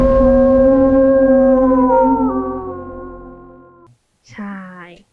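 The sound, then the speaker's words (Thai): A designed creature howl layered from many kinds of dogs, wolves and tigers on nearly ten tracks, howl only without footsteps: one long, rich, steady tone that dips slightly in pitch midway and fades out, then a brief, wavering rising cry. “คือแค่นี้คือผสมกันแบบสิบชนิด ใช่ค่ะ อันนี้แค่เสียงหอนนะคะคยังไม่รวมคุณเขาก้าวเดิน ในแต่ละอุ้งเท้าอะไรอย่างเงี้ยค่ะ”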